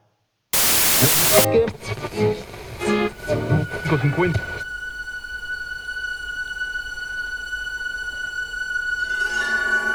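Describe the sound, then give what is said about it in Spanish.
An old radio being tuned: a sudden loud burst of hissing static, then warbling, garbled voices and sliding tones as the dial moves, settling into a steady electrical hum with a thin whine. “Un sonido como de sintonización de una vieja radio.”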